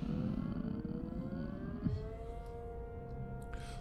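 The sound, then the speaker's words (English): A civil defense warning siren wails steadily outdoors, its tone slowly rising, carried over a constant low rumble. No one speaks. “it outside of the ship and it's almost as if um, i don't know if everyone if anyone has been in a city that has like uh, like tsunami warnings or like hurricane mm. warnings or whatever mm. it seems to be like an alarm that is happening outside”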